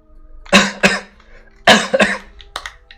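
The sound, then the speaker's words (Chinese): A person imitates an old man's coughing: five or so harsh, raspy coughs in ragged pairs, fairly loud, with short pauses between them and no talking. “就是一老头咳嗽的声音”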